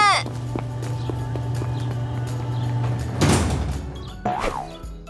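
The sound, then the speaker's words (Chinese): A school door slides open with a rough scraping rush midway, followed by a second sliding sweep, while soft scattered footsteps tap beneath a steady low hum. “学校快开门！”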